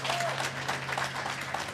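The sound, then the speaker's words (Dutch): An audience applauds steadily after the host asks for a big round of applause for a guest, a dense wash of many hands clapping at an even level throughout the short stretch, with a faint low hum underneath. “Mag ik een eh, groot applaus”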